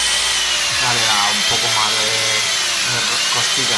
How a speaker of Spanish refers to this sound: Enchufo, voy a enchufar el taladro ahora.